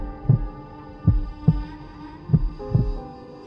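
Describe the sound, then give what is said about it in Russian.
A heartbeat of someone asleep on cold sand at night thumps in low, muffled beats, mostly in lub-dub pairs at a slow steady pace, over a constant droning hum. No one speaks. “Ветер шептал ему на ухо древние заклинания, а земля вибрировала изнутри, вторя биению его сердца.”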